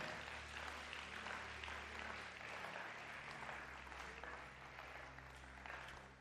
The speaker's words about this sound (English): Give Jesus a mighty clap of praise. Amen.